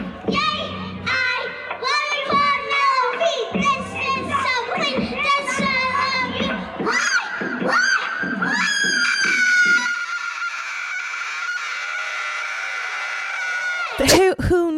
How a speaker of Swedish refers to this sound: Och sen så mm. ställer hon sig och gör skriker. skrik, alltså typ death metal-skrik. Vilket jag älskar.